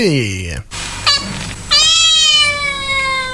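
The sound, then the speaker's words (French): A cat meows twice: a short, falling mew, then after a brief pause a loud, drawn-out meow that holds steady for over a second. “Et de toutes tes chats.”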